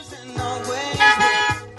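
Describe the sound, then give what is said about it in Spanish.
Car horns blare loudly in a sustained, brassy honking that swells in a few overlapping blasts, with low thumps underneath. “Diablo, tres bocinas, tres gatos.”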